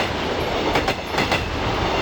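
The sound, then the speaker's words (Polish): A train rolls steadily along the railway tracks, a continuous loud rumble with faint rhythmic clacks of wheels over rail joints, with no voices. “Tory kolejowe.”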